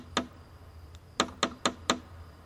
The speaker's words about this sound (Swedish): Jag tog tag i dörrknackaren, ett lejonhuvud i mässing, och knackade på.